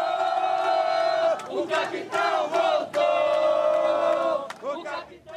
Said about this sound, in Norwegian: Kapteinen er tilbake, roper tilhengerne til Jair Bolsonaro.